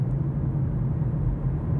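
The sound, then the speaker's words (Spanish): A steady low rumble of tires rolling on the road, heard from inside a moving car, continuous and even with no voices over it. “Es que voy dentro y es verdad que oigo la rodadura del vehículo, porque eh, porque la oigo, a lo mejor hasta vosotros la oís, pero es que es el ruido que oigo.”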